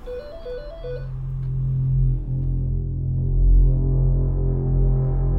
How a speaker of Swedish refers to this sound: Klockan tio på morgonen ringer det i trerummaren i Solna. Det är Lilian Gustafsson som ringer hem till lägenheten där hon bor tillsammans med sin son Anders.